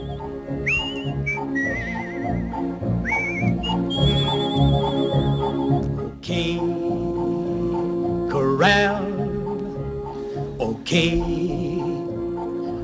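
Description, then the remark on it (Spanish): Opening theme music from the 1957 western film Duelo de Titanes: a loud, full orchestral piece with sustained strings and brass, while high whistle-like melodic phrases rise and waver above it throughout, with no talking. “Este es el comienzo de Duelo de Titanes, año 57.”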